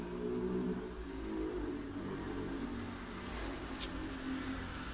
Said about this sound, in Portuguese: Ai, moto.